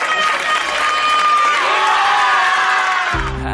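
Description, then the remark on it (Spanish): A crowd cheering and whooping at the wedding of lifelong best friends, a loud continuous wash of voices with high shouts rising above, cutting off abruptly near the end as a low tone begins. “Así suena la boda de tus mejores amigos, los de toda la vida, tras dejar atrás tus problemas con el juego.”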